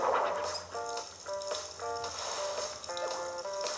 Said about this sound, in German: So, Gartenwasser an.